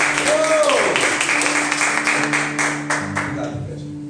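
A crowd claps for the Lord in a dense, steady burst of applause over sustained low keyboard tones, the clapping gradually thinning and fading toward the end.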